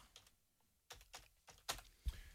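Quiet typing on a computer keyboard as someone types a place name into a search system: several distinct key clicks in an uneven rhythm, with brief pauses between small bursts of keystrokes, and no voices.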